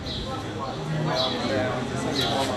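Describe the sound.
House sparrows chirp a few times in short, bright bursts spread across the moment, heard against a busy background murmur that may include faint voices.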